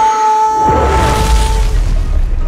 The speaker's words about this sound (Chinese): 哇！一瞬间，大岩石就被龟派气功炸碎了。